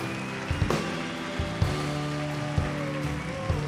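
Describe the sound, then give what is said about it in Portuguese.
A church audience applauds God loudly and steadily, a dense crackling wash of clapping over sustained musical tones, with soft low thumps recurring about once a second. “Você pode dar o melhor aplauso que você já deu nesses dias a Ele, bem forte.”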